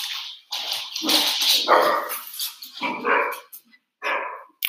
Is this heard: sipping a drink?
no